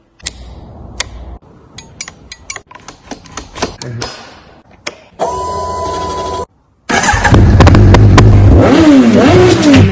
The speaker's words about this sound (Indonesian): Buset tuh orang ngebut bener bawa motor Gak mikir nyawa apa Pakai langgar lampu merah lagi Udah jelas-jelas lampu merah Tanda berhenti Tapi tetap aja nerobos lampu merah